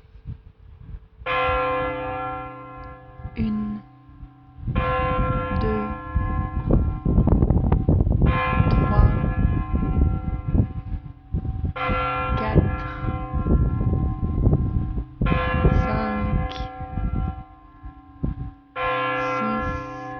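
The large bells of Strasbourg Cathedral, in the centre of Strasbourg, toll loudly for 9 o'clock in slow, steady strokes a few seconds apart, each ringing note swelling and overlapping the last, with faint wind in the background and no voices.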